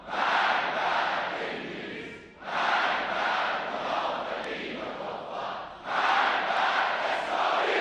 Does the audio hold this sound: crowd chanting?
yes